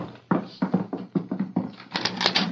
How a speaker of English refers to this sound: Sounds like a lot of horses riding around outside the walls, like cavalry or something.